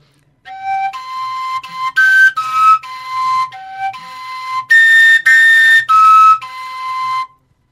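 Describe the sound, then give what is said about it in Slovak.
A simple pipe plays loud, clear whistling tones, sliding between a few pitches in short held phrases with brief gaps, with no talking. “že chytíš tú pišťalu, jak malé decko, hej, chytíš do rúk, mm-hmm.”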